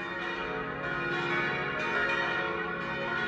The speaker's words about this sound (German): Er plante einen rechteckigen Saalbau mit offenem Dachtragewerk und einem freistehenden Campanile. Seine vier Glocken, die auf die Töne des, es, ges und b gestimmt sind, wurden in Erding gegossen.